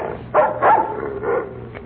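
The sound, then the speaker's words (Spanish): A dog barks several times in short bursts at a man who has just arrived, moderately loud, with brief pauses between barks and no one talking. “Le está ladrando el perro.”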